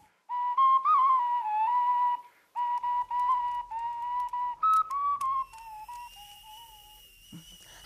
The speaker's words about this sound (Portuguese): água já está a ferver.